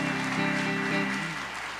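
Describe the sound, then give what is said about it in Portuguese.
A church audience applauds in praise of God after a prayer, a dense, steady wash of clapping, fairly loud throughout, with a sustained low musical chord humming underneath that fades toward the end. “Se você crê, diga amém e dê uma salva de palmas bem forte a ele, porque ele é bom, ele está na casa, ele está neste lugar.”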